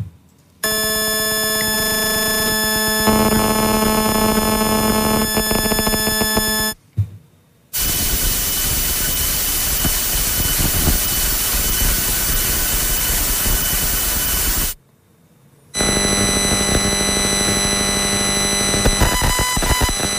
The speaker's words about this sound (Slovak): čiže 4G a na konci to zakončíme posledným tzv. NR, to je najnovšia 5G. A to všetko tu budú teda downlinkové signály, ktoré sa však v čase môžu meniť, to ešte musím povedať, a môžu závisieť teda na tej reálnej datovej prevádzke. Takže môžeme počúvať.